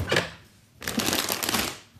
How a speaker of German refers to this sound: Mal gucken, was so alles Schönes in meinem Vorratsschrank ist. Schublade auf.